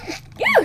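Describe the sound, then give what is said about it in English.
A single quick sneeze: a faint breathy intake, then a sharp voiced burst that swoops up and back down in pitch before cutting off. “Bless you.”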